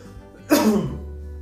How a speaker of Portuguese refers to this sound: Vai falando alguma coisa enquanto eu tô tossindo. Tamo de máscara, tá? Só pra todo mundo saber. É, é mas isso é, é engasgo de comida.